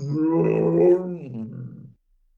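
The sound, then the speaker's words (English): A single loud, drawn-out monster roar, about two seconds long, from a giant snake robot roaring like Godzilla in a big battle, sustained and then dropping into a lower growl before cutting off. It sounds like a human voice imitating the roar. “They have these giant snake robots that roar like Godzilla or whatever.”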